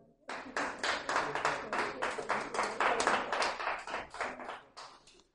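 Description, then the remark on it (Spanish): An audience applauds with a steady run of sharp, rapid claps lasting about five seconds, fairly loud and even throughout, with no one talking over it. “Te faltó dar un aplauso ahí.”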